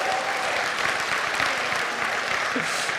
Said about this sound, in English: Uh, and, uh, and that little clap wasn't so fantastic.